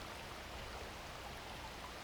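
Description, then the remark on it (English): Steady, gentle flowing water like a small stream, a continuous soft rushing and trickling with no pauses, heard alone without any voices. “I'm enjoying the sound, the peaceful sound of the water.”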